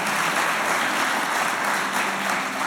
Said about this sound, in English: Amen, church. Amen. You can give out a clap. Go ahead. It's amazing.